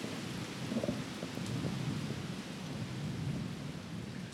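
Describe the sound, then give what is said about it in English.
Hurricane Zeta's winds and heavy rain roar steadily outside a front door in New Orleans, Louisiana, a dense, continuous wash of noise with deep rumbling gusts underneath and no voices. “You're listening to Zeta outside my front door just a couple weeks ago.”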